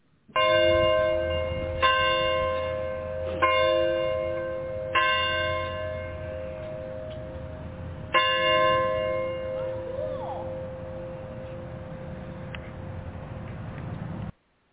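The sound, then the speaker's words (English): Church bells ring out for a wedding in a series of loud, unevenly spaced strikes, each tone lingering and humming as it slowly fades, with no voices over them. “for two days, I was listening to those bell, uh, the church bell, uh, ready for the wedding.”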